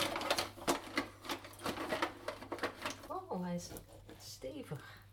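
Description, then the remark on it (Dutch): A knife cuts into a Santiago almond cake made with almond flour, with rapid crunchy scraping and clicking for a few seconds, then brief voiced murmurs as people talk quietly. “Um, als je wil, mag jij dit moois aansnijden.”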